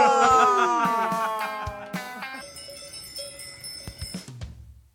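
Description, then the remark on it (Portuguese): A cowbell clanks repeatedly in an uneven rhythm, its bright metallic ringing overlapping and slowly fading in loudness, with no voices present. “A correspondência com o badalo da semana.”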